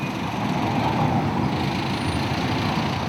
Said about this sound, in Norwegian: I sentrum av Lilongwe tilbyr gateselgerne forbipasserende alt fra joggesko til levende høner. Kvinner bærer handleposene sine på hodet, mens tuk-tuker, sykler og biler snirkler seg i kø på støvete veier.